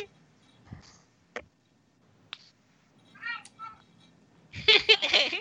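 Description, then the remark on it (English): A cat meows, first a short wavering call, then a louder, drawn-out yowl, with a couple of sharp clicks and faint background noise earlier on. “the hell is the cat doing over there”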